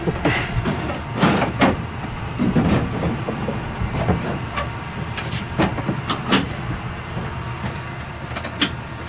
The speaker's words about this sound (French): Donc là, on cale le chariot au fond du, camion, comme ça, ça bouge pas.